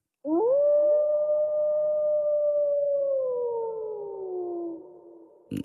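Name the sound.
wolf howling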